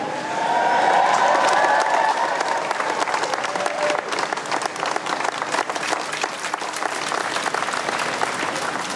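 A crowd claps steadily and loudly for the full nine seconds, a dense crackle of many hands, with a few voices cheering and whooping over it near the start.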